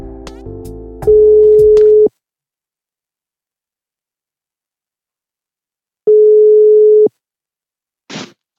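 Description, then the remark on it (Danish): A steady electronic ringback tone on an outgoing phone call sounds twice, each one-second beep separated by a long silence, preceded by brief dialing tones and ending with a short click as the line connects. “jeg ringer fra podcasten Ringe Rap”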